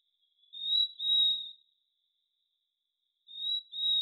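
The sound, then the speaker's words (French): A Conraua crassipes frog calling with high, whistle-like notes, delivered in paired bursts: two quick notes, a pause of about two seconds, then two more. Clear, with no voices. “L'une des rares grenouilles ou la seule grenouille à chanter la bouche ouverte.”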